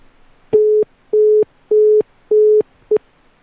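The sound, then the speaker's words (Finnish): A telephone busy signal heard while trying to place a call: four steady mid-pitched tones in an even on-off rhythm, each about a third of a second, then a fifth cut short. Clear, with no talking. “Nyt se oli varattu.”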